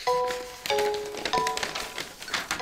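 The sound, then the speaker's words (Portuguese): Pages of a printed paper newspaper rustle and crinkle in dense, scratchy bursts for under three seconds, with three short steady tones sounding beneath the paper noise and no voices. “É um jornal, claro, de papel.”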